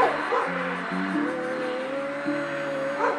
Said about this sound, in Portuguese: Instigado por outros cachorros, o Billy uivava para a porta de vidro.